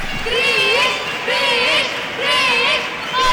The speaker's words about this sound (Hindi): पूरा स्टेडियम क्रिश क्रिश क्रिश की आवाज़ से गूंज उठा था